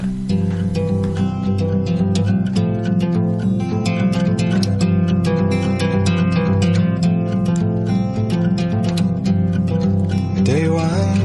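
A gentle acoustic song plays throughout, with steadily picked guitar notes in a flowing rhythm and a warm melodic line, close and evenly loud from start to finish.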